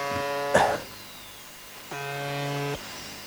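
A harsh, droning tone from a shortwave buzzer radio station in Russia: a brief blip and a noisy crackle, then a steady buzz lasting nearly a second before cutting off abruptly, fairly loud over faint static.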